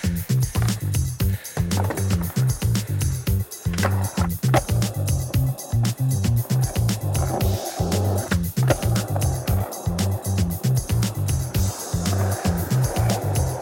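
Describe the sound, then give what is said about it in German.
A skateboard rolls continuously over rough pavement at a private skate area in Chile with a steady low rumble, punctuated by repeated sharp clacks of wheels hitting joints and tricks landing, loud throughout. “Willkommen in meiner privaten Skate-Area in Chile am Wasserton.”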